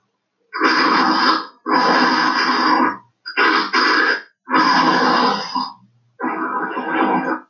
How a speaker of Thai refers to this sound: อันนี้เสียงค่อนข้างสยองขวัญนนะครับ เป็นเสียงเหมือนซอมบี้กำลังจะมาทำร้ายนะครับ